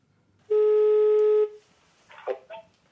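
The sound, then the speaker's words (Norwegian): A single loud, steady telephone tone holds for about a second, then cuts off, followed by a brief stretch of faint, muffled voice, as state secretary Bård Hoksrud phones disappointed Progress Party (FrP) voters. “Senere i sendingen skal vi også høre Bård Hoksrud ringe opp eh, skuffede Frp-velgere.”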